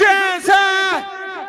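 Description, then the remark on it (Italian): A loud, sustained roar of voices shouting together, holding a strong steady pitch for over a second, with a brief dip and swell midway before it tapers off slightly at the end. “Vorrei sentire le loro voci!”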